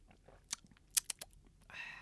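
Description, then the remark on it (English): Quiet mouth sounds: a few sharp clicks and smacks, then a soft, breathy slurp as someone sips coffee. Nobody speaks. “I'm gonna take another sip of coffee here.”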